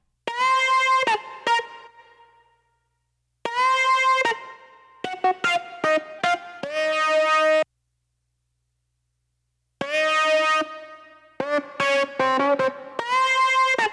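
A bright, buzzy synthesizer riff from a song, soloed out of the mix, plays alone, repeating its short stabbing phrase three times with brief silent gaps between, loud with a slightly processed, effected tone.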